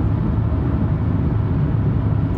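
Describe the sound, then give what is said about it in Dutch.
Steady, low droning rumble of a car cabin on the move, with constant road and engine noise filling the background at an even level and no voices. “Zoals nu in de auto, ja, gaat me heel veel tijd kosten.”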